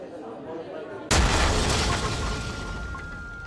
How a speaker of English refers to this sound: A massive explosion has ripped through a busy cafe in the Moroccan city of Marrakesh, killing at least 15 people and wounding 20 others. The Argana restaurant on Jemaa el-Fnaa Square is popular with tourists.